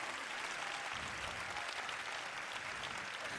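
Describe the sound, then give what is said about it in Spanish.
A live show audience claps steadily for a volunteer brought to the centre of the stage, a dense, even wash of many hands applauding with no pauses for several seconds, no voices standing out above it. “Agora, quero que lle dedes un forte aplauso porque un tío cojonudo, eh?”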